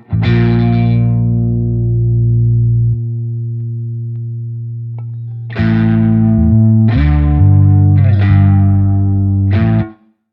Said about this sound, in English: Finally, on top of both of these tracks is two lead guitar tracks one guitar plucks a single string and slowly bends the note upward. The other lead guitar plays a simplified version of the song's bass line, giving the bass track crunch and depth.